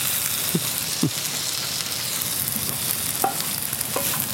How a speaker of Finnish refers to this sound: Ja tota, tähän pyttipannun, pä- py- pyttipannun päälle vielä paistetaan kananmunat.